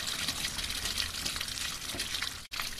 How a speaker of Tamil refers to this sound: முற்றத்து தண்ணீர் குழாயில் பழுதடைந்த நல்லியிலிருந்து தண்ணீர் பீச்சி அடித்துக் கொண்டிருந்தது